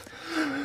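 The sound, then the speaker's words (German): A single short sneeze with a voiced, breathy build-up that swells in loudness, heard on its own with no talking over it. “Gesundheit.”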